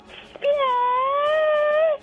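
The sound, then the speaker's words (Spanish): A person imitates a cat with one long, sustained meow-like wail, steady and fairly loud, holding a bright harmonic tone for about a second and a half before breaking off. “¿Como un gato?”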